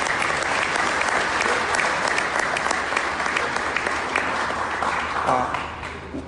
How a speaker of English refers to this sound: So I think that that's worth at least a round of, of applause